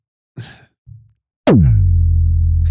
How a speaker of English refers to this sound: You'll hear a bleep there.